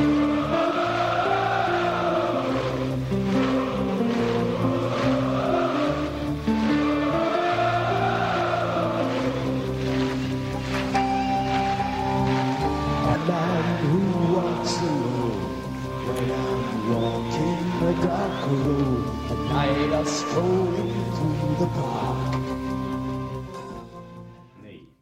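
A loud, dense live metal performance recorded in Buenos Aires on 25 July 1992, with distorted guitars, pounding drums and a roaring crowd, captured with rough, muddy fidelity like an audience bootleg; it cuts off abruptly at the end.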